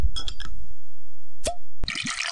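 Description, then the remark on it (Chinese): A few quick glassy clinks, a single bright plop, then a steady fizzy hiss of a drink pouring into a glass with small gurgles as glasses are raised for a toast, no voices. “让我们举起酒杯，记录这历史性的一刻吧。”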